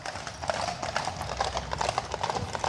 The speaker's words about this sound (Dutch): Ja, het is trouwens een achtspan. Ja, ziet er goed uit hè.